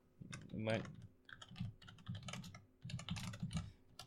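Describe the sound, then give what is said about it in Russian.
Rapid keyboard typing of a Google search for a Soviet coin holder, a quick run of clicky keystrokes in uneven bursts with brief pauses between, fairly quiet over a low background hum. “Если что, я написал советская монетодержалка.”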